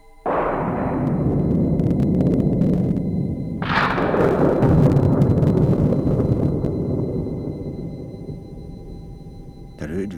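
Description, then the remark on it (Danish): Two heavy, booming crashes a few seconds apart as a trapdoor, too heavy to hold, is let fall and slams down, each followed by a long, deep rumbling reverberation that slowly fades away. “endeligt braget så stærkt, som om man på en gang affyrede ti kanoner.”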